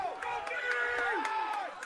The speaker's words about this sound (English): So the crowd starting to get fired up on this side.